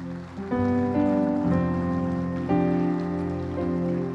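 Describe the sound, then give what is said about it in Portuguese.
A crowd at a church service claps steadily in praise of God, a dense wash of applause running the whole time beneath sustained keyboard chords that shift every second or so. “Aplaude a Deus por isso.”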